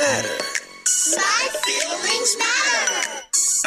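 A short burst of an upbeat children's rap song: rhythmic sung-spoken vocals over a bouncy beat with crisp hi-hat-like hits, loud and close, with no talk over it.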